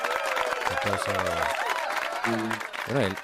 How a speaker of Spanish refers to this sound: hoy has tenido doble aplauso, el nuestro por cumplir, por haber cumplido años esta semana y el de las 8 que también te toca un poco, ¿no?